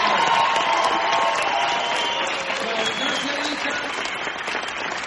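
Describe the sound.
An audience applauds steadily for about five seconds, a dense, loud wash of many hands clapping, with faint cheers and voices mixed into the noise before it eases slightly toward the end.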